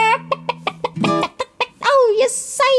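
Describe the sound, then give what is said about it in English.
A human voice imitates clucking hens: a quick run of short, sharp clucks, then longer, rising squawks, loud with no other sound behind them. “And all the chickens were like, ah!”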